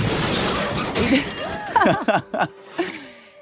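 Crockery smashes with a loud crash, followed by several sharp clattering bursts of pieces ringing and tinkling as they scatter, fairly loud against a noisy background.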